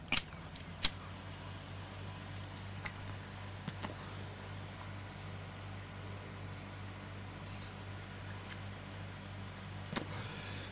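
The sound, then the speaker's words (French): An electric fan runs steadily, giving a low, even hum with a soft airy hiss. A few sharp clicks sound near the start and again near the end, and nobody speaks. “Désolé, je vais rallumer mon ventilateur.”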